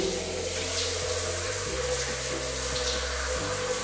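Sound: shower water running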